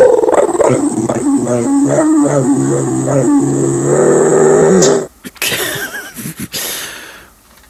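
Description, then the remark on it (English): A dog makes a long run of whiny, grumbling vocalizations with wavering pitch for several seconds, then breaks into a few short, rough huffs and snorts. “That is doggy.”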